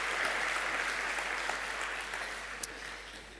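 Steady audience applause following a prayer, a dense wash of many hands clapping at an even level that fades slightly toward the end, with no voices over it.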